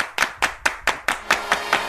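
An audience applauds a guest being introduced on a show, in a steady, even rhythm: about nine sharp, crisp hand claps evenly spaced across two seconds, moderately loud, with no voices.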